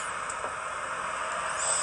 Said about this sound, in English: red tortoise breathing